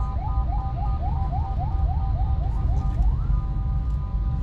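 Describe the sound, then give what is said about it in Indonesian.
An ambulance siren passing by wails in a rapid yelp, quick rising whoops repeating steadily over a heavy low rumble of traffic, with no one speaking. “Ada ambulan lewat.”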